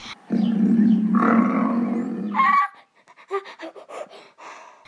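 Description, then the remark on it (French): A lion gives one long, deep, rumbling roar lasting about two seconds, followed by a string of short, breathy grunts that fade out. The sound is loud, with no talking. “Des lions.”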